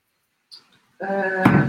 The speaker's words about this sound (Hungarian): bocsánat, csak becsuktam az ajtót.